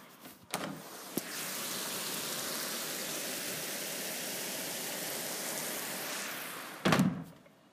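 Heavy rain with big fat drops pours down in a dense, steady rush for several seconds, bracketed by a few muffled thumps at the start and a louder clatter at the end. No one speaks.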